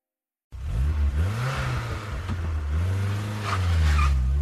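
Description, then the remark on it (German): A car accelerates hard from a standstill, its engine revving loudly as the tires squeal against the pavement, the screech rising toward the end of the burst. “Keine gute Idee, so loszufahren. Der Motor mag es nicht und schon gar nicht die Reifen.”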